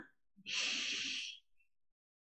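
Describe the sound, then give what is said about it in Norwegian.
A single deep breath drawn in through the nose, an airy hiss lasting about a second before fading to silence. “Inn gjennom nesa.”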